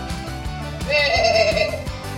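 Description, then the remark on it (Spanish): A single wavering sheep bleat, about a second long and fairly loud, rises over a steady rhythmic music bed that continues before and after it. “Sí, oveja lana.”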